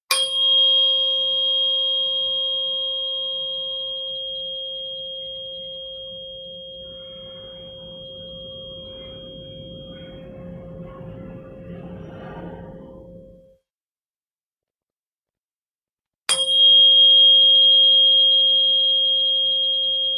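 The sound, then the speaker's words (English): A 528 hertz tuning fork is struck and rings with a pure, sustained tone that slowly fades, then falls silent before a second strike rings out clearly again. “Okay, so I got another one more fork we'll use, um, and this is a brighter, prettier sound. This is a 528 hertz, so we'll just do a few with these, with this one, and see what we notice.”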